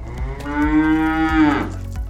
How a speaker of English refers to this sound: That's cow, actually.